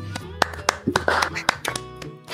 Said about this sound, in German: Ja, da kann man auch ruhig mal klatschen.